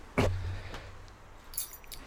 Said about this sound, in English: You know, like yeah, uh, try to pick up those keys, right?